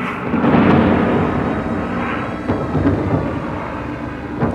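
A heavy thunderstorm at 8 o'clock in the evening on 30 August rumbles steadily, deep rolling thunder filling the low end while rain hisses beneath it, with a few sharper cracks breaking through near the end.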